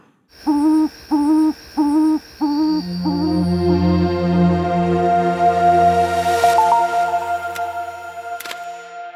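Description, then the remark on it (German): Four quick, evenly spaced, clear hooting calls from a frogmouth bird, followed by a long steady droning tone that slowly fades, with a few faint clicks near the end. “Und so klingt der Vogel.”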